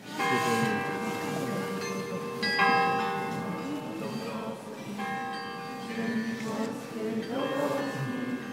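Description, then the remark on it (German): Church bells ring out continuously in Gdańsk, Poland, in January 2019 at a spontaneous memorial gathering for the city's mayor, several overlapping strikes with long ringing tones layered over a murmuring crowd in the background, loud and resonant. “So klang es in Danzig im Januar 2019, eine spontane Trauerfeier für den Bürgermeister der Stadt mit Nationalhymne und Kirchengeläut.”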